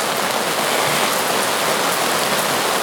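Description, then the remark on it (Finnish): Heavy monsoon rain pours down steadily in a dense, continuous hiss, loud throughout with no pauses or voices. “On semmoinen rauhoittava sateen ääni taustalla.”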